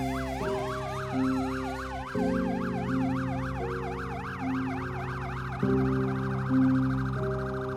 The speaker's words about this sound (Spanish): Los servicios periciales acababan de llegar. El ulular de sirenas aturdía los oídos y las emociones.